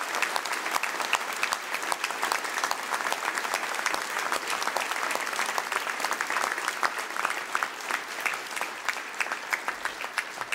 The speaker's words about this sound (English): So I'd ask them to just rise and receive a round of applause for their work in bringing forth the nomination of Kate Carmack.